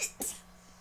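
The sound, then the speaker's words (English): A short, sharp sneeze with a hissy burst of breath and a faint puff just before it; nobody speaks and the rest is quiet. “Bless you, baby. Bless you. Bless you.”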